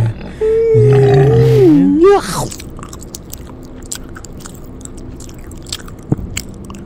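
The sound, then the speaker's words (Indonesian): A drawn-out, pitched groaning growl lasts about two seconds, then gives way to faint, irregular wet crunches and clicks of someone chewing and eating raw pork, with no talking. “kita makan aja babi ini”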